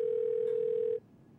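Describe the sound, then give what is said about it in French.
A telephone dial tone as a phone is picked up to call Satya Nadella, CEO of Microsoft: one steady, unbroken pitch for about a second, then cuts off abruptly into quiet background hiss. No voices are heard. “Et il décroche son téléphone pour appeler Satya Nadella, le PDG de Microsoft.”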